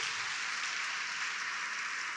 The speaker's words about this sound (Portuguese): Se você crê e recebe, diga amém e aplauda o Senhor mais uma vez.